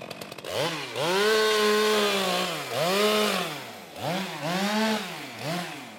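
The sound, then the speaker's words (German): A harvester's saw on a long gripper arm revs loudly, its whine repeatedly climbing and dropping in pitch in several surging cycles as it cuts down a maple tree next to the town hall in Miesbach, Germany, with no voices. “Neben dem Rathaus schneidet eine Holzerntemaschine, ein sogenannter Harvester, mit einer Säge an einem langen Greifarm einen Ahorn ab und legt ihn auf die Straße.”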